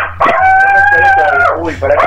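A dog lets out one long, loud howl, holding a steady pitch for over a second before it trails off, followed by a short rising whine.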